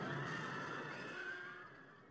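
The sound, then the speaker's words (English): A horse, frightened by an earth tremor, lets out a single loud, shrill whinny that holds steady for about two seconds before trailing off, with no voices around it. “The horse was frightened and threw Arcite to the ground.”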